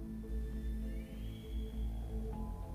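A police car siren rises in a thin, high wail over a low, steady drone of background music, with no one speaking, as a police car pulls up across the street from an alley.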